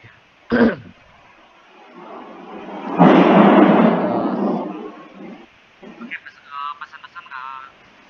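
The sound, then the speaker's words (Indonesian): A loud, deep thunder rumble swells suddenly and rolls on for a few seconds before fading, seemingly nearby, with a brief throat-clearing sound before it and a few voices afterward. “Eh, teman-teman Suaranya langit, deketan.”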